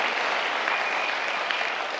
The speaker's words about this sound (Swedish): Ja, det är värt Jesus, Ge Jesus en applåd.